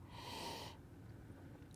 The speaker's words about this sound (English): then you want to do a little sniff